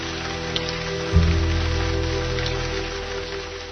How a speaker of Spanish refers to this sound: Hace más de diez días que llueve y el patio de la casa está anegado.